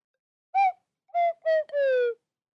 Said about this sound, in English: she does that on a bare stage with nothing but a slide whistle.